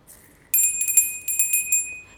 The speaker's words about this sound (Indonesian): itu pasti tahu kan kalau belnya yang dipakai ibu Nah, belnya kayak gitu. Jadi setelah di mimpi gue itu suara bel itu nyaring banget.